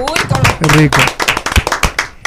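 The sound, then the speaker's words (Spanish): Hands clap in a quick, uneven burst of applause, with a few people's voices and cheering mixed in at the start before the clapping carries on alone. “el primer aplauso.”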